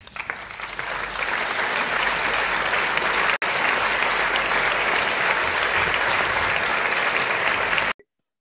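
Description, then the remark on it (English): An audience bursts into loud, sustained applause welcoming a guest, a dense wash of clapping that holds steady for several seconds before cutting off abruptly. No one speaks over it. “Y'all welcome my sister friend right through here, and y'all better clap really hard.”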